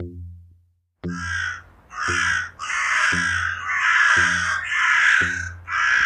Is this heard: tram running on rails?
no